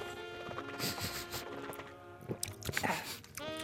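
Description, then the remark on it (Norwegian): Wet slurping and lip-smacking from someone tasting wine, a handful of short irregular smacks over a murmuring, humming voice. “Smatting det synes jeg er ganske ekkel lyd.”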